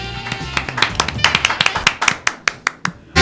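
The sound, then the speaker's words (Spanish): A small audience applauds a guest being introduced, a nursing professor at the Universidad de Lanús (UNLA): a run of sharp, crisp hand claps in an uneven patter, fairly loud, with no one talking, ending on a slightly louder burst. “Aplausos, por favor.”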